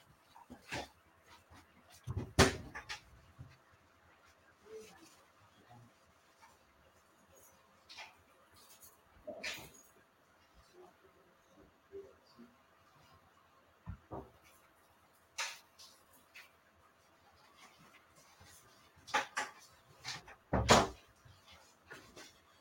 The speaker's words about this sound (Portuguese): Desculpa, gente. O programa ao vivo é assim: o porteiro estava tá batendo aqui na minha porta. Tinha que atender.